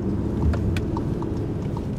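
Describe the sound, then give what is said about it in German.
A car rolls through city traffic, its steady low engine rumble heard with a light, evenly spaced ticking running through it. No one speaks. “Kerstin bremst den Wagen und langsam wächst die Anspannung.”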